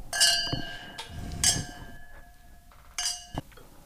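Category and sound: household object, glasses clinking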